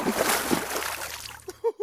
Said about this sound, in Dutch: Met de grote boog belandde hij in het water.